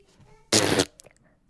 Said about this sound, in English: Um, does that mean no or did you fart? That means yes. Oh, means yes. So when a guitar says no, it means no, but when a guitar farts, it means yes.